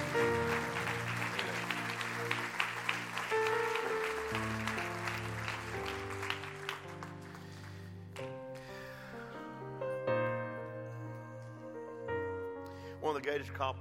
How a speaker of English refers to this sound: Stand to your feet and clap your hands. You're wonderful people, and I love you very much. Stand to your feet and clap your hands all over the house. Amen.